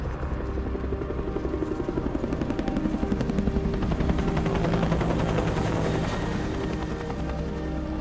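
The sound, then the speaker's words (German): A rescue helicopter repeatedly trying to climb in a storm with heavy rain and zero visibility during a mountain rescue at the Hochstaufen; its rotor beats in a steady, rapid thudding chop over a deep engine roar, holding loud and even for the full eight seconds with no voices. “Ein Rettungshubschrauber versucht immer wieder nach oben zu kommen, aber der Sturm und der Regen sind zu stark.”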